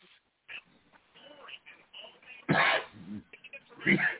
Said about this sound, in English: Watch no, I'm coughing. God dang.